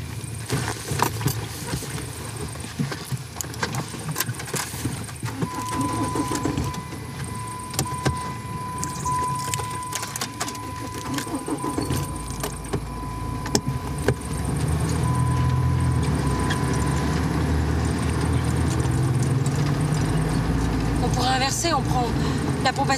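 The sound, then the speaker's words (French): A car engine starts about two-thirds of the way through and settles into a steady running rumble. Before that come faint jangles and clicks, and voices talk over it. “Pourquoi on prend la bagnole, là”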